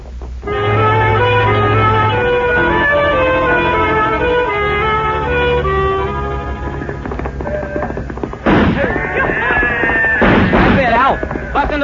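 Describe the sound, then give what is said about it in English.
Sustained orchestral music plays, then three or four loud, sharp gunshots, fired by riders who keep riding as they shoot, crack out irregularly over it near the end, with rough shouting voices mixed in. “Keep riding and keep shooting.”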